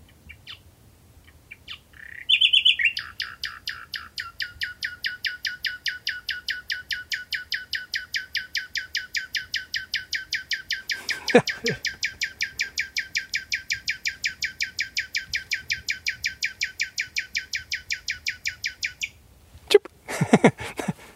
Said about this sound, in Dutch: Maar let op wat deze nachtegaal doet. Dus een hele gewone nachtegaal. Strofe. Klein toontje.